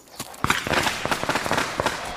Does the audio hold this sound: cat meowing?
no